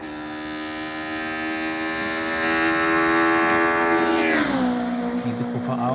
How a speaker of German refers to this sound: Autos hatten ja vier Zylinder und dann diese riesige Airbox vorne drin und die Autos haben also den Krach nicht über die Auspuffanlage produziert, sondern über dieses phänomenale Ansauggeräusch.